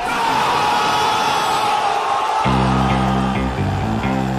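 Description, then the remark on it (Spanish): Loud, steady applause mixed with cheering and whoops from an audience welcoming a band, continuing without a break; about halfway through, sustained low musical tones come in beneath the crowd noise. “con este cálido aplauso recibimos a los ….”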